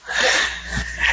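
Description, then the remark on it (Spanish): A single breathy sneeze, a brief burst of hissing air with a sharp nasal catch that fades out within about a second. “Salud.”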